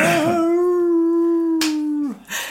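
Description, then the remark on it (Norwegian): A voice imitates a wolf's howl, mimicking how the speaker cried: one long, loud, steady wail sustained for about two seconds before dropping off abruptly, with a short breathy noise after. “Altså, jeg, jeg grein som altså, som en ulv.”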